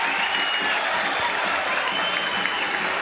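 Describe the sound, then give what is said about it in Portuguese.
A large stadium crowd of football fans at a Grêmio match applauds steadily, a dense, continuous wash of clapping with some crowd noise mixed in, holding an even loudness throughout with no one speaking over it. “Agora a torcida aplaude.”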